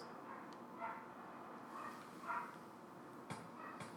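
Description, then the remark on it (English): A few dog barks ring out at irregular intervals over a steady background rumble, muffled and fairly faint, with a couple of sharp knocks near the end. “What's up with them dogs?”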